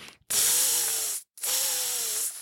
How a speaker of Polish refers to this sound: Trzask, prask, podłoga jękła, skorupka na gęsim jaju pękła i wyskoczył siodłaty gąsiorek. Gąsiorek syknął.